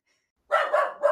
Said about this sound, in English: Oh, that's my dog.